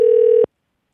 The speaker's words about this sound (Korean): 자, 2004번님 다시 한번 전화 걸어볼까요? 예.